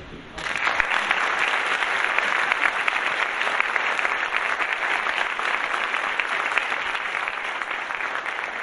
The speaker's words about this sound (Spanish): Sin más, cedo el micrófono al doctor Miguel Carbonell para que pida un fuerte aplauso.